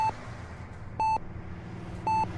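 Short electronic beeps from a vital signs monitor on a patient in an ambulance, sounding at a steady interval of about one second over a low hum of background noise, clear.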